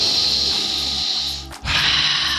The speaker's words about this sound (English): okay, I'm going to squeeze the bag yeah, so you guys can take a great big sniff. Ready?